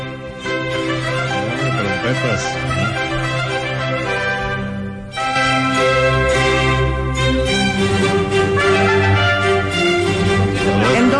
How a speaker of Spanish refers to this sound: muy querida no es una pieza choteada, es una pieza de la época del barroco. Muy bien. Allá por 1632.